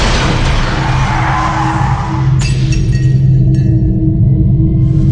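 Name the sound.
car skidding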